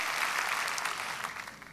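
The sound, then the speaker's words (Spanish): Steady audience applause, a dense wash of many hands clapping at once, fairly loud and even throughout with no voices standing out. “¿Qué tal este aplauso?”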